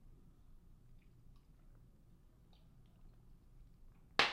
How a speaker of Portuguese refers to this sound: Deixa eu tomar uma água, peraí.